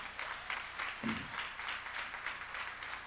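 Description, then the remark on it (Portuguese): A crowd at a church meeting applauds the band steadily for about three seconds, a dense crackle of many hands with a faint rhythmic pulse, and a brief low vocal sound surfaces in the middle. “Sim, vamos aplaudir essa galera aí, top, hein, gente?”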